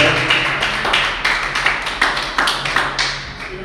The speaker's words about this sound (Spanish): Alguien tiene que darle un aplauso al Señor.